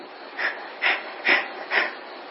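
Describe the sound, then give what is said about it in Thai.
A person imitates a dog's panting, four quick, breathy huffs at a steady rhythm, clear, with no talking. “แต่เราไม่เคยผ่อนให้มันหายใจได้สบายๆนะให้มันหายใจเหมือนหายใจแมว หายใจหมานะ่ะ หายใจสุนัขน่ะ”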